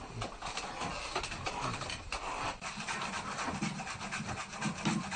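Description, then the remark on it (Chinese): Dry, raspy scrubbing as a Hangzhou fan is sanded in Hangzhou, Zhejiang, China, with a coarse stem of a grass used in Chinese medicine in place of sandpaper, with quick back-and-forth strokes repeating steadily at a moderate level for several seconds and no voices. “可能在古代的人呢发发明这个扇子的时间里没有沙皮，就想出一个办法，就是用这个草来代替这个沙皮。”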